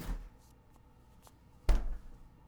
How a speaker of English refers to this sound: Mary nodded and opened a fridge below the counter.